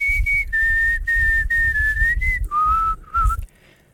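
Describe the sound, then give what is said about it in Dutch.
A person whistles a short tune with the mouth, clear, holding several steady notes that step downward before stopping, with soft breathy low noise underneath. “kan je dat zomaar nog fluiten?”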